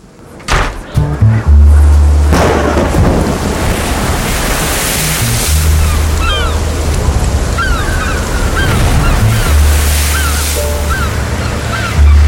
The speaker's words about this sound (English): Come in, out of the storm.